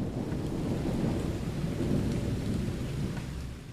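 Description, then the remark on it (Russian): Steady heavy rain pours down with a deep, continuous rumble of thunder rolling underneath, loud and unbroken throughout, with no voices present. “И тогда начался дождь.”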